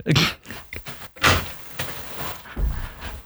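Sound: door opening and closing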